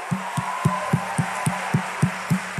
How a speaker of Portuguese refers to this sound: Uma coisa que eu aprendi é que bem aqui a gente aplaude uma pessoa que merece elogio. Mas bem aqui, ó, a gente aplaude ao Rei dos Reis. Vamos fazer, dar uma maior salva de palmas para o Senhor.